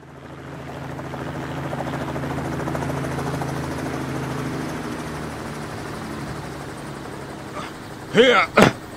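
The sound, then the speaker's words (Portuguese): A helicopter drones steadily, its low rotor hum and engine roar holding for several seconds before easing off, followed by a couple of brief, sharp high chirps at the end. It is the helicopter of Stefan, commander of the local police, arriving at the scene. “Stefan desceu de seu helicóptero e um dos soldados disse:”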